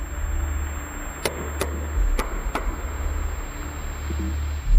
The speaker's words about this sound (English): the Canadians heard banging noises at 30 minute intervals from under the ocean, and that changed everything. This is the sound that was heard. Sounds like it could be somebody knocking. The symmetry between those knockings is very unusual.